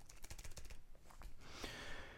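A quick burst of soft, clicky keystrokes on a compact portable Bluetooth travel keyboard, then a few scattered taps and a faint rustle, all quiet with no one speaking.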